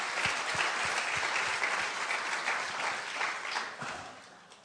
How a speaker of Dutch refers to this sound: Laten we deze mensen een applaus geven.